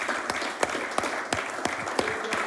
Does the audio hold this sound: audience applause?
yes